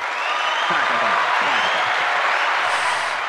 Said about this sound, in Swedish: Ja, men en stor applåd till Micke för hans eh, rödbetssallad